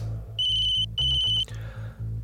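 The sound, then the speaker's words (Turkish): A mobile phone rings with two bright, steady electronic tones, each about half a second long, fairly loud over a low rhythmic musical bed. “Konuyu değiştirmek için Bahtiyar'ı soracaktım ki cep telefonum çaldı.”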